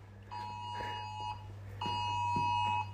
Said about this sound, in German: Der Alarm klingelt im Hintergrund.